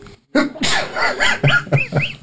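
A loud, sharp sneeze bursts out, followed by a quick series of short, rising-and-falling vocal yelps.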